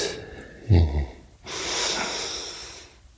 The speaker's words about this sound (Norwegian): Så åpner du opp, og så puster du inn og ut. Ut.